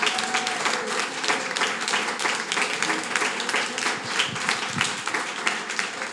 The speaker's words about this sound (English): I just want to say thank you to all three for coming out tonight. Let's give our panel round of applause.